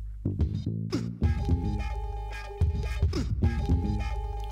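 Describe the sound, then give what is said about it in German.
A hip-hop beat kicks off with turntable scratching, chopped stuttering samples and punchy bass hits, loud and upfront with no vocals yet, sounding like an old-school rap intro. “Dann geben wir uns jetzt den Oldschool-Rap.”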